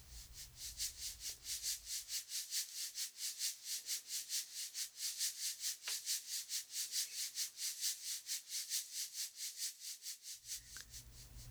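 A shaker played softly in a steady, even rhythm, its dry hissing strokes repeating several times a second with no talking, a faint low rumble at the start and end.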